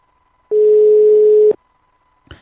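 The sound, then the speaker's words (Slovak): A telephone line rings once as a call comes in during a live broadcast of the radio station Slobodný vysielač: a single loud, steady, mid-pitched tone lasting about a second, followed by silence and a brief click. No one speaks. “Takže už nám to zvoní.”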